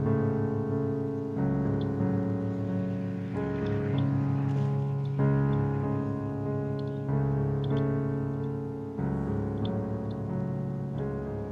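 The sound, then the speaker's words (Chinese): A slow, brooding orchestral theme, called the "Evil Times" theme, used for any character on the arduous journey to destroy the Ring: sustained string-like chords that shift every second or two, holding a steady, full loudness throughout with no voices. “这个主题呢，是可以用在任何角色上，只要那个角色是正在路途煎熬的去摧毁戒指的时候，就会有呃“邪恶时代”的主题出现。”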